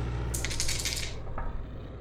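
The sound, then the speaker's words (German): Two six-sided dice are rolled during a tabletop submarine game, rattling and clattering across a hard surface for about a second and landing on 3 and 5, ending with a single sharp click as one settles, over a steady low hum with no voices. “Nochmal mit 2 W6.”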